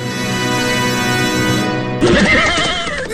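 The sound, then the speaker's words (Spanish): A horse neighs loudly, a long whinny with a steady harmonic tone that breaks into a shakier, wavering trill toward the end. “Aunque los caballos no son considerados mascota como tal, sí han tenido una relación muy estrecha con los humanos.”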